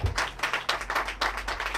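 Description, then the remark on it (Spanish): A short burst of applause after singing, from a small group, several hands clapping in a quick, uneven rhythm at moderate volume, with no voices. “Es el primer aplauso que nos llevamos por cantar.”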